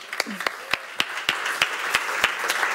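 Audience applause at event locations in Tottenham, Tingen and Segeten, welcoming a guest: a steady wash of many hands clapping, with sharp, evenly spaced individual claps standing out, growing slightly fuller about halfway through.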